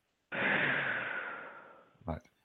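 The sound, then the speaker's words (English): A person takes a deep breath: a single long, breathy rush of air, strong at first and slowly fading over about two seconds, followed by a short soft catch of breath. Fairly loud, with no talking. “Take a breath.”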